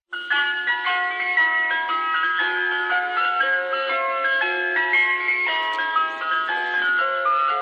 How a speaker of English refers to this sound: Ah, it's great to have something different to be complaining about, isn't it? The Mr. Whippy van.